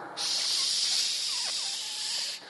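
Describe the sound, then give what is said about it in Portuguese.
A person makes a steady, loud hissing 'shhh' with their mouth for about two seconds, imitating the static an old analog TV made when it lost its signal, then it cuts off. “Mas antigamente dava aquele chiado, né?”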